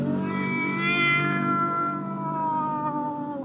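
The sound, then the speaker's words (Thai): A person telling a story imitates a cat being hugged, with one long, drawn-out, wavering mew lasting several seconds, steady and fairly loud, with no other talking. “แล้วก็กอดแล้วแมวก็แบบ”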